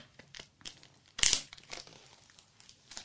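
Crinkling and rustling of cellophane wrap as it's peeled off a product box, with one loud, sharp tearing rip in the middle and lighter crackles before and after. No voices.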